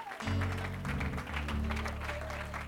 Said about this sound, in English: Let's give the Lord that hand clap of praise.